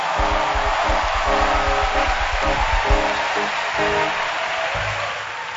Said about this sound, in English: And you can top it up with a hand clap before you sit down.